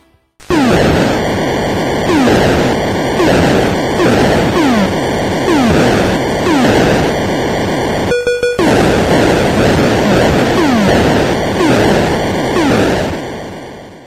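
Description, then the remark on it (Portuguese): Retro video game audio from River Raid, a jet shooter on the Atari: a loud, constant harsh engine drone with repeating electronic bleeps and zaps, including a brief burst like a shot or explosion, with no talking. “Bom, então vamos ouvir aí o River Raid pro Atari.”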